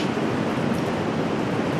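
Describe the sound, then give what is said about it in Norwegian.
A steady, fairly loud roar of rushing water at the Frognerparken sewage pumping station, which receives sewage from over 400,000 people in eastern Norway, continuous and even throughout, with no voices. “Hit, til Frognerparken pumpestasjon, kommer dritten fra over 400 000 østlendinger.”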